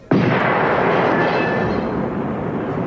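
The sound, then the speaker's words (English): Doors explode with a sudden loud blast, then a dense, roaring rumble that stays loud for the next few seconds. No one speaks. “He was killed as the doors exploded”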